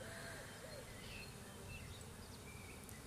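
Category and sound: insect, bees buzzing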